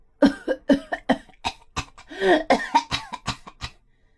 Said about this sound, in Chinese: 可是，一个声音吵得他们更睡不着了，那是咳咳咳咳咳的声音。